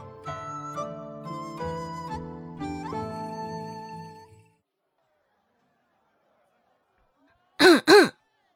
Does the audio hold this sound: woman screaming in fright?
no